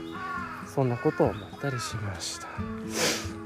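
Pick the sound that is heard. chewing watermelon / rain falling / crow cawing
crow cawing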